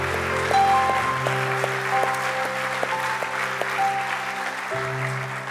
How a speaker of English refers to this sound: If you love him this morning, let me hear your hands. He's worthy of praise.